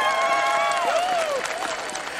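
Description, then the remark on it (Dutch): A loud, dense roar of crowd cheering fills the whole moment, many voices shouting and whooping together at once, sustained, with a few raised voices rising above the din. “Toen klonk er een oorverdovend gejuich.”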